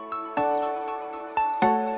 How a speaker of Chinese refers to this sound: 房号三幺幺零，摁响门铃，推开一个故事。